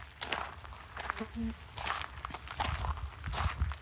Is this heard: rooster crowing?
no